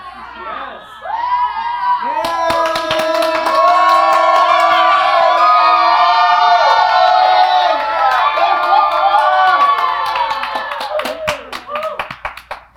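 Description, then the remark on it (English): A crowd pre-celebrates, erupting in loud cheering, whooping and scattered clapping, many voices overlapping in high-pitched shouts that swell quickly, hold steady for several seconds, then trail off. “Well, let's just pre celebrate.”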